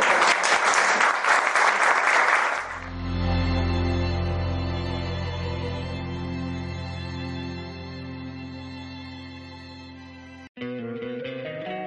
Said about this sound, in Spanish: Bueno, a punto, ¿eh? un aplauso doble.